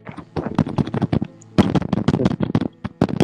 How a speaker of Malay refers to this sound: Eh, apa ni? Ketuk, siapa ketuk? Eh, betul pun apa hal ni? Oi, jangan ketuk, jangan ketuk, jangan ketuk. Siapa tu?